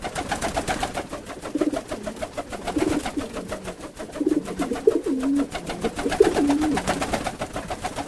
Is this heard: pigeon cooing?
yes